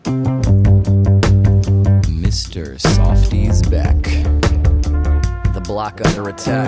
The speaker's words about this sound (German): Das ist nämlich Slam Poetry in Musik. Und äh, für, für Rap ungewöhnliche Instrumentierung mit Bläsern und allem. Ja, aber es ist eigentlich kein Rap, ne? Es ist eher so Spoken Word.